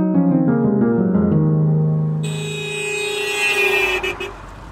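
Several car horns in heavy traffic blare at once in long, overlapping held tones, some shifting pitch, with a brighter, shriller horn joining partway through. The honking is loud, with no one speaking.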